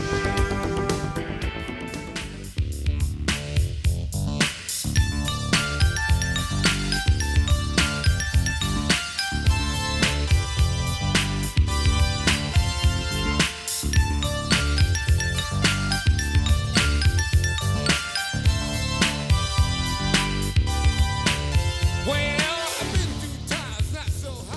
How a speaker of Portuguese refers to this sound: Mas vamos ouvir um trechinho de … do …